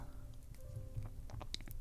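A fireplace burns with a steady low rumble, scattered sharp crackles and pops breaking through at irregular moments, fairly quiet, with no voices.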